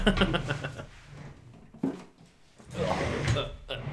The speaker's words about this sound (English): Just the office chair going across uh, laminate flooring.